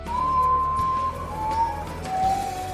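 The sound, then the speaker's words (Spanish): A mournful guajojó bird calls at night in three long, drawn-out whistling notes, each pitched a little lower than the last, over a steady low rumble of background noise. “La leyenda cuenta que en las noches más oscuras, cuando la luz abandona la Tierra y ésta se sumerge en un cielo estrellado, se puede escuchar el llanto de la chica en forma de graznido.”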